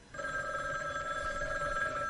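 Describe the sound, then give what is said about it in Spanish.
A telephone rings with a steady, continuous electronic tone, held unbroken for about two seconds after a brief pause at the start. It sounds clear, with no voices. “Pensé que era Sara de nuevo, con una oferta tentadora, y estuve a punto de no contestar el teléfono”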